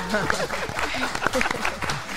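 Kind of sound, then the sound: crowd, audience applause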